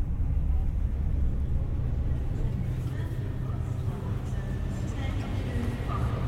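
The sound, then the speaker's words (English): A train heading north toward Newcastle rumbles steadily along the track, a dense, continuous low roar with faint higher squeals and whines drifting in over the constant drone. “That alien concept travel and moving, the rumble of the track, the whisper of anticipation.”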